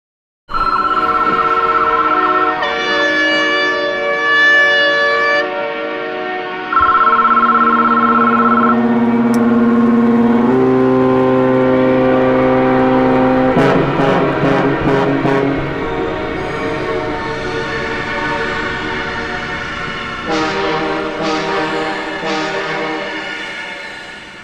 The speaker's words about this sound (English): So when I listened back to my soundscape composition, I realized that my revisitation was, let's call it a reshuffling of the colonial deck chairs. I cleverly combined horns and whistles and sirens and industrial and natural sounds